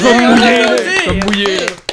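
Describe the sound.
Quick, steady hand claps from a small group, loud, mixed with excited voices talking and cheering over them throughout.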